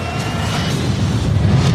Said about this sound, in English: Boom. Boom. There it is. explosion. yeah, explosion.